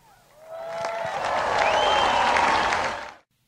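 Light, polite golf-clap applause from a small crowd responding to an applause line in a speech, a steady patter of clapping that swells briefly and cuts off after about three seconds, with a few faint voices mixed in.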